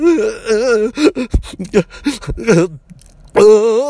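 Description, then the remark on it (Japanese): A man's voice imitates the exaggerated sobbing of high school baseball teammates crying after losing their last summer tournament, with wavering, wailing cries broken by sharp gasping catches, then a short pause before one more drawn-out wail. Fairly loud. “で、負けてね、みんなすっごいな、泣いてたんだよね。”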